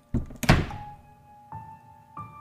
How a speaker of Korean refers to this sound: 난 그대로 욕실 문을 닫고 다시 침대로 돌아왔다.